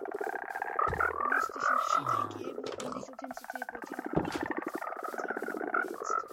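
A video game frog croaks in a dense, rapid chorus of throaty pulses that continues steadily and fairly loudly throughout, with a voice faintly audible underneath.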